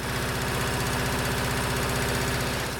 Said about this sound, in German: und ich finde ja, der Sound dieser alten Trecker, der ist wie Musik in meinen Ohren.